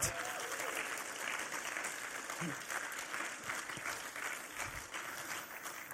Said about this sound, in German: Ich würde gerne euch noch einen richtigen Applaus geben.